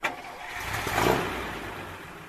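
A car engine cranks and catches, its rumble swelling to a brief peak and then settling into a steady idle, alone with no voices.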